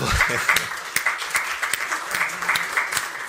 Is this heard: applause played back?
yes